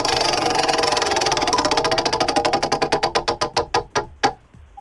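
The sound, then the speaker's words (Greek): A prize wheel spins with a rapid ratcheting clatter of clicks that gradually slows, the ticks spacing out and growing more distinct until a final click as it stops. “Έλα να γυρίσουμε τον τροχούλι.”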